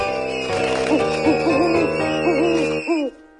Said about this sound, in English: Owl on the prowl.